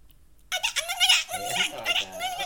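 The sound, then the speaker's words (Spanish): A person squeaks and chirps in a high, wavering voice, mimicking a dolphin's call for about two seconds, fairly loud, the squeals sliding up and down with a rough, breathy edge. “¿cómo hace el delfín?”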